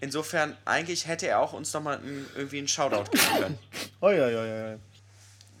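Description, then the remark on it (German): A sneeze bursts out amid a relaxed conversation, one sharp, loud outburst with people talking just before and around it. “Gesundheit.”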